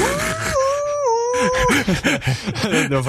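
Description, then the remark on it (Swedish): A wolf howls a short tune, as in the video game Zelda: Twilight Princess, where songs are howled instead of played on the ocarina. It holds long notes that step down in pitch, then breaks into quicker rising and falling yips and wavering tones, loud. “Eh, nej, för sig, i Twilight Princess så ylade man faktiskt låtarna istället för att spela på Nocorina.”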